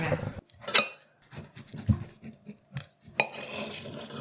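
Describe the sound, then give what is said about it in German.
A knife chops through a firm sweet potato, a run of dull knocks on a cutting board with a few sharper clacks and scraping, fairly loud, with no talking. “Und du schneidest es sehr, sehr sauber.”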